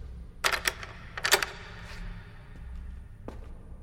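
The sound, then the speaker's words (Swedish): Sharp mechanical clicks of a door lock being turned as a caretaker locks the door of a dark prison building for security, a quick pair followed by a cluster, then one faint click, set against a low, quiet hum. “Vi tänder våra ficklampor och hör ett klick bakom oss.”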